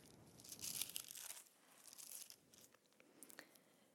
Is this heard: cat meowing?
no